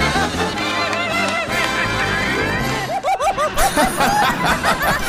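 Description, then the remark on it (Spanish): A loud, dense chorus of turkeys gobbling together, their warbling calls overlapping continuously, with a burst of rapid, bubbling gobbles toward the end. “¡Tenemos invitados especiales a muchos guajolotes!”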